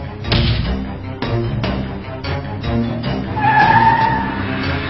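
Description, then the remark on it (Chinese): A car lurches through repeated starts and stops, driven stop-and-go as in a traffic jam during a motion-sickness test, with several broad bursts of road noise, then a high, wavering tire squeal rising over the engine near the end. No one speaks. “堵车时不停的起步停车，也容易造成晕车的现象，真的是这样吗？”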